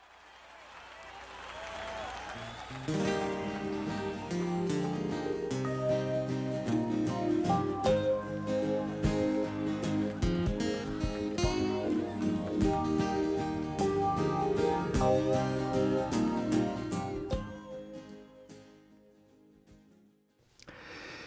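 Crowd applause and cheering at the start give way to a live folk song recorded at a concert in Central Park, with steady acoustic guitar and sung vocals that carries on evenly before fading out near the end.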